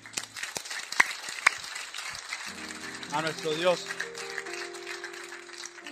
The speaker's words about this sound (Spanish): ¿Por qué no damos un fuerte aplauso